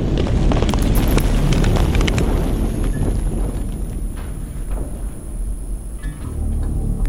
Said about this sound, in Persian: اینطور به نظر میرسه که یه مسلسل تو فاصله خیلی کمی داره شلیک میکنه